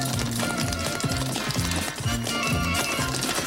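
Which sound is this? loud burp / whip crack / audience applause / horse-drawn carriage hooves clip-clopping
horse-drawn carriage hooves clip-clopping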